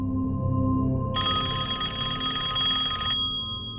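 telephone ringing

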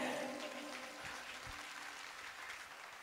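applause

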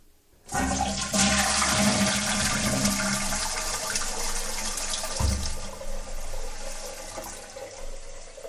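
toilet flushing

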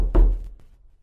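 knocking on a door

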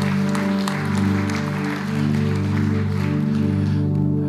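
church audience applauding

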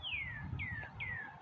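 birds singing outside

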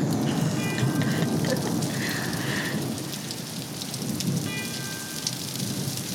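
steady rain falling

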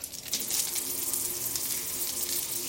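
hot water running

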